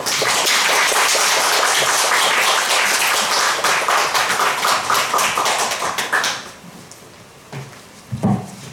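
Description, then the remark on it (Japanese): A crowd applauds loudly with dense, rapid clapping for about six seconds to welcome a visiting missionary couple, then the applause quickly fades, leaving a few scattered claps and small thumps. “今日は、え2回目また今年2回目来てくださったわけですけども本当に心から感謝してお迎えしたいと思います拍手をお迎えしましょ”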